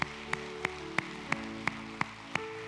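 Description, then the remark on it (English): An audience at a church service claps for the Lord in steady unison, about eight sharp claps at an even tempo, over sustained organ-like chords, with no talking. “Let's give the Lord a great big round of applause tonight.”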